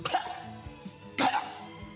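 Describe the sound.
A voice imitates a cat hacking up a hairball: a couple of rough, throaty retching coughs, the second louder and harsher, with no words spoken.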